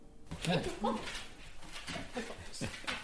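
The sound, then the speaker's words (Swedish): Three large, excited golden retriever dogs whine and yip in short, high bursts amid lively indistinct voices and household bustle, jumping about as they welcome visitors in through the door at a workshop during lunchtime. “deras tre stora hundar som är väldigt glada och skuttar välkomnar oss in genom dörren.”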